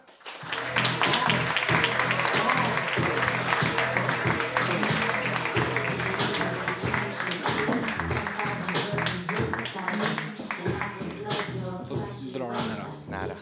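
A crowd applauds steadily for about thirteen seconds as Färjestad defenceman Karl Dahlström is welcomed onto the stage, a dense, loud wash of many hands clapping at once that holds its level before easing slightly toward the end.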